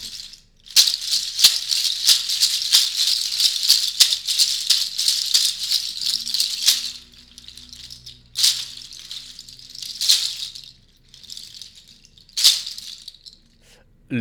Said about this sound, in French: Les, ongles, en l'occurrence, vous faites référence aux sabots des, des moutons. Sabots de moutons, oui. Et, et l'instrument s'appelle comment Les charchas.